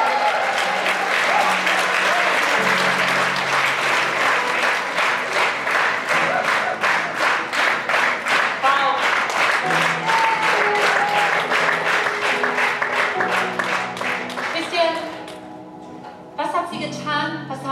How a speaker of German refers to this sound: Und blas ihn mal auf. Blas mal ein. Komm, lass uns hier anfeuern.